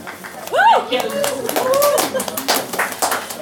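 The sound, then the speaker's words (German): A crowd applauds with dense, steady clapping, while a few rising cheers or whoops ring out over it near the start and middle. “Applaus.”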